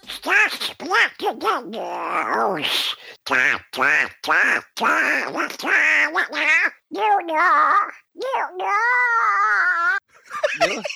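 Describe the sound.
A person does a raspy Donald Duck voice impression while singing, a squawky, quacking warble carried through several melodic phrases with brief pauses, fairly loud.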